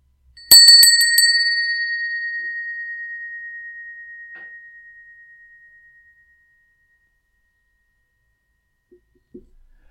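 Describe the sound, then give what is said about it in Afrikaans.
A small bell rings with a few quick strikes, then its clear tone hangs and slowly fades over several seconds, leaving near silence with a faint tap near the end. “So, ons klokkie lui en sit 'n bietjie in daar waar jy is.”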